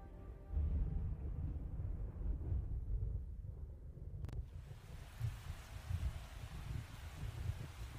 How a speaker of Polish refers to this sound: Na zewnątrz raz po raz uderza jakiś. Burza jest z deszczem.